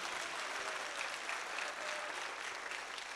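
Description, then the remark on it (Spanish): An audience claps for the Lord in the morning in sustained, dense applause, a steady wash of many hands at an even loudness for the whole stretch, with no voices standing out. “Regálele un aplauso al Señor esta mañana.”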